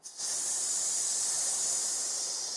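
A steady, high-pitched hiss of air escaping, meant as air seeping out of a giant green New York Jets bubble, starts abruptly and holds at an even level for about two and a half seconds with no voices.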